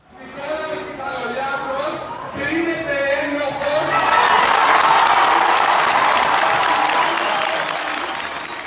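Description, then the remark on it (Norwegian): A large crowd of over 15,000 antifascists, trade union activists and representatives of other Greek parties on a street in Athens cheers and shouts as a verdict is announced over loudspeakers. Their voices rise into a sustained roar of clapping and applause that swells after a few seconds and stays loud to the end. “Og slik hørtes det ut på gaten i Aten da dommen ble forkynt over høyttalere til over 15 000 antifascister, fagforeningsaktivister, representanter fra de fleste andre greske partiene.”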